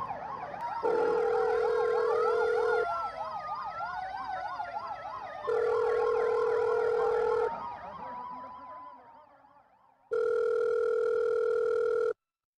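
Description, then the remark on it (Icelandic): Sirens of several ambulances arriving at the scene wail together in overlapping rising and falling sweeps, interrupted three times by a loud, steady two-note tone; the sirens fade before the final tone burst. “Þremu mínútum síðar komu fyrstu fjóri sjúkrabílarnir á staðin og fljótlega eftir þeim komu svo 6 til viðbútar.”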